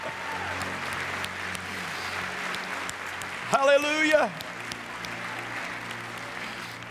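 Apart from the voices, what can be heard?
audience hand clapping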